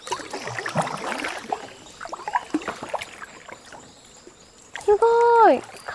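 Kayak paddles swish and splash through the water in uneven strokes while paddling toward a bend before the Tinaisaru waterfall, with a soft watery trickle between them and a brief tonal call rising near the end.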